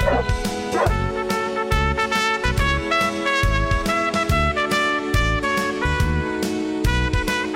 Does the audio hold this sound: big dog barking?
yes